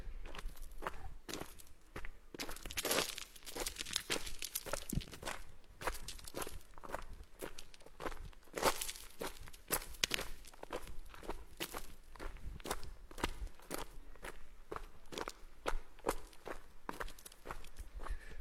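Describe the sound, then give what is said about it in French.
Steady footsteps crunch across loose gravel at a walking pace, each step scattering tiny pebbles with a crisp, gritty skitter, clear with no voices. “voyez, ce qui est fou, c'est que on entend comme ça gicler des tout petits cailloux qui rissolent comme ça sous les pieds.”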